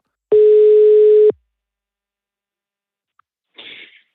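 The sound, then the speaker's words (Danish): A single loud, steady ringing tone of an outgoing phone call lasts about a second, followed by a long silence and then a brief, muffled burst of noise as if the line picks up. “Så øhm, ja, lad os, øh, lad os stikke af sig et kald.”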